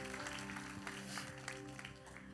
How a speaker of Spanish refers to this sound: Dale un fuerte aplauso a Dios en esta mañana.